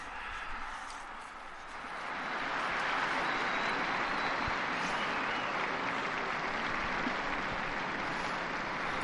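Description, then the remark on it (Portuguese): A large crowd of faithful and pilgrims in St. Peter's Square applauds Pope Francis after the Angelus prayer, the clapping swelling after a couple of seconds into a steady, dense roar of hands that continues without pause. “Então, o Papa recebe os aplausos dos fiéis e peregrinos presentes na Praça São Pedro após esta reflexão então sobre o Evangelho do segundo domingo da Quaresma e também essa série de apelos que o Papa Francisco fez após a oração mariana do Ângelos.”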